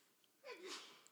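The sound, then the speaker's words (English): A single sneeze from someone in the audience, soft, a short voiced onset followed by a breathy hiss, with no talking around it. “Bless you.”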